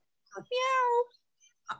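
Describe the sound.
A person imitates a baby mountain lion for others to guess, with a single drawn-out, tonal meow, fairly loud, framed by brief bits of voice just before and after.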